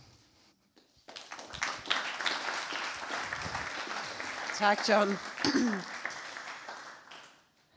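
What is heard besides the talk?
audience clapping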